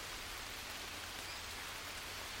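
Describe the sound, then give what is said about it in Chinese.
Steady rain falls in a soft, continuous hiss with a faint pattering texture, even and unbroken throughout, with no voices. “他却伸手去接雨水，说：“真是久违，他的家乡。”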